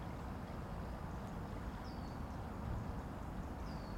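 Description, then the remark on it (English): Steady, soft trickling water to one side fills the scene with a continuous wash, while two faint bird chirps rise briefly above it. “Now you're going to hear the water to our side, just a trickle of it. There's some birds.”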